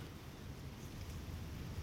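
Wind blows steadily through reeds, a continuous low rushing and rustling at an even, moderate level with no distinct gusts and no voices.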